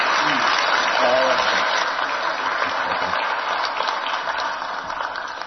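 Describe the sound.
A crowd of people claps steadily, a dense, sustained wash of applause thanking a student speaker, staying loud throughout and tapering slightly toward the end, with a faint voice briefly audible underneath.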